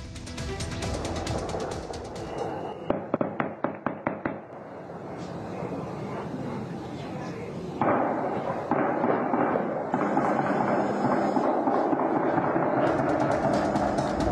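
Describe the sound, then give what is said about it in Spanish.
A rapid volley of sharp gunshots cracks out in quick succession as armed men fire on attendees at a cockfighting arena in the community of Las Tinajas at night, then fades into a steady, noisy background din with scattered fainter pops. “Hombres armados ingresaron a un palenque en la comunidad de Las Tinajas y dispararon contra los asistentes.”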